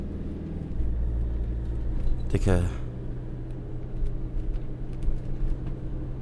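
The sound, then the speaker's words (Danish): A struggling car engine rumbles steadily, its low drone unsteady, with a brief harsher burst midway; the car sounds unhealthy and seems to be breaking down. A man speaks a few words over it. “Og hvis der er noget, jeg fucking ikke har brug for lige nu, så er det den her lorte bil, den går ned.”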